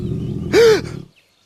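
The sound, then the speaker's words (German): A low, rumbling stomach growl from a hungry person's stomach that swells into a short, tonal gurgling groan before fading out, with no one speaking. “Irgendwas hat geknurrt.”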